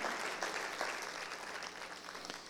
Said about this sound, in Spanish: Y si lo entendiste, puedes dar un aplauso al Señor, si lo entendiste.